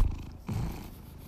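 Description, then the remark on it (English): A cat in the Los Angeles County area purrs loudly, a steady low rumbling drone with a brief swell in the middle, heard alone with no talking. “You're listening to Marky, the loudest purrer, purrer in the uh, Los Angeles County area.”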